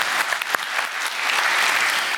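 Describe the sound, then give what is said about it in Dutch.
A crowd at the Kapiteinenfestival claps steadily and fairly loudly after a debate, a dense patter of many hands that carries on without pause for a couple of seconds. “Applaus voor Gijs Rademaker.”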